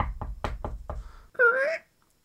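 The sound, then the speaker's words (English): Five firm, hollow knocks on the door of a house in a quick, steady rhythm, fairly loud, followed by a brief drawn-out vocal sound before silence. “Uh, yeah, you gotta know all these houses quite a lot down here, but I guess today we're looking at ex ex wife avenue, so uh, that's just that's just knock on the door.”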